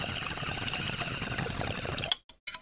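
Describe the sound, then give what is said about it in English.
Steady bubbling and gurgling of water as someone takes a toke of weed, running for about two seconds, then cutting off abruptly, followed by a couple of brief trailing splutters. “Let's toke up because I got some high thoughts.”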